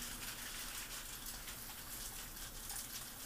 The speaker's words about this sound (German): Es hagelt. Oh. Es hagelt.